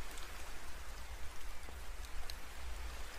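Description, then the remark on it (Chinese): Steady rain falls in a dense, hissing wash, with scattered sharper drop ticks and a soft low rumble underneath; fairly quiet and continuous, with no voices. “嗯，其实下雨的时候，溪流的声音。会更加动人的吧。”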